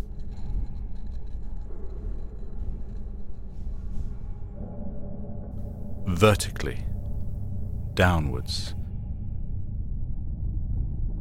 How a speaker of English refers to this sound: We are listening to huge plates shift subtly, but on a colossal scale.